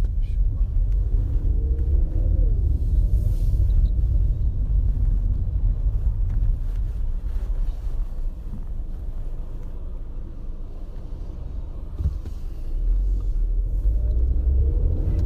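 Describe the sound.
A steady, loud low engine rumble fills the whole ride in a Yandex taxi in Moscow, a continuous droning hum from the car with faint shifts in pitch and muffled voices occasionally underneath.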